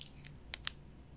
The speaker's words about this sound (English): William mumbled as he grabbed a few sheets of paper and a pen